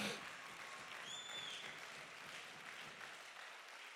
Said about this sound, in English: I wish somebody clap your hands right now.